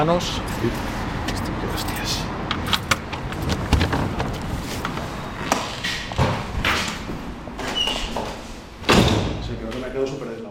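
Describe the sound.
Keys rattle and click in a lock before a door swings open with a few sharp knocks and thuds as someone opens it to let visitors in, muffled voices murmuring in the background.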